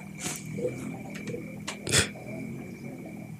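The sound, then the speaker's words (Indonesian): A motorcycle engine drones low and steady in the background at night, a muffled rumble with a few brief, sharper bursts of noise rising over it. “Ini brengsek nih malam-malam suara motor itu kayak anjing memang ke motor.”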